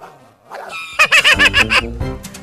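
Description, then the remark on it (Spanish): A small Chihuahua dog barks in a rapid, high-pitched burst of about seven sharp yaps, then lets out a couple more after a brief pause, loud, with no one talking. “yo tengo un perrito chihuahua que es bien bravo con todos.”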